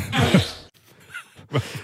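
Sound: wet fart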